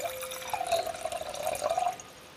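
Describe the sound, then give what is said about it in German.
A drink is poured into a glass for about two seconds, a steady trickle whose pitch climbs as the glass fills, then stops abruptly. No one speaks. “Nein, nein, nein, ich schicke mir mal ein Glas nach.”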